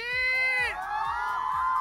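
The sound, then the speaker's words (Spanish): A large outdoor crowd on an esplanade shouts and cheers for Cepillín together in one loud, sustained roar, many high voices blending into a continuous wall of sound that rises, wavers slightly and carries on. “Fuerte, pero fuerte grito para Cepillín.”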